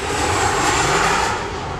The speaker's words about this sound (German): Dichter Nebel hing über dem Frankfurter Flughafen vor zehn Jahren, als am Nachmittag ein Flugzeug der Luftwaffe mit Bundeskanzlerin Angela Merkel als erstes auf der neuen Landebahn Nordwest aufsetzte.